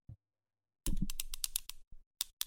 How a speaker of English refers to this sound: I've got two pens. I'm going to click them together. Are you ready?